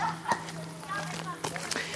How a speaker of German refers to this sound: Und ich höre Kinder. Guck mal, da kommt eine Nachtwanderung. Schau mal, von der Waldschule, ne? Ja. Ja, sogar nachts ist hier noch betrieben.